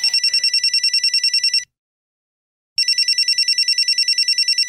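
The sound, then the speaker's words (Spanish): A telephone rings twice, each ring a loud, rapid electronic trill lasting over a second, separated by a brief silence. No voices accompany it. “Porras, el teléfono. ¿Quién será?”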